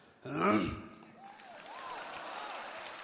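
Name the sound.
audience applause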